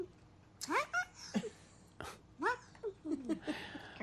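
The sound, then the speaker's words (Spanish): A cat lets out a series of short, strained bark-like yelps, about seven bursts in an irregular rhythm, moderately loud with brief quiet gaps between them. “El gato ladrando.”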